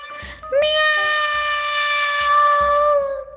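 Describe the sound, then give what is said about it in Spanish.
One long, drawn-out cat meow, loud, holding a steady high pitch for nearly three seconds before tapering off, with soft low thumps underneath. “¡Miau! Contestó el gato con dulzura.”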